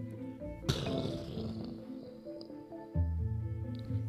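A sudden crack gives way to a deep, rolling rumble of thunder that lingers for several seconds, with a second low boom near the end over a soft sustained musical background.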